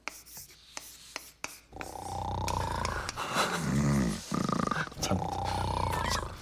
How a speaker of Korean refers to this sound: 돌아보니 할머니는 완전히 책상에 엎드린 채로 코를 골며 주무시고 계셨고